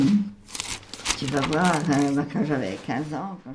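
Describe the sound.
Paper rustles and crinkles in short bursts as photo album pages are turned, while a woman talks steadily over the sound.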